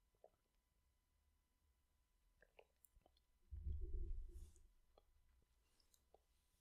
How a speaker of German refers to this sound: Übrigens, wenn du mich schmatzen hörst, ich trinke nebenbei meinen Kombucha.